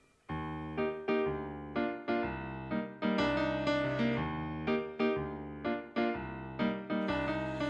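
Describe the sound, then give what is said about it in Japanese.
A cover of a friend's song opens with bright, rhythmic chords struck in a steady pulse, sustained harmonics ringing between each hit, loud with no singing yet. “ということでここで一曲お聴きいただきたいなと思います”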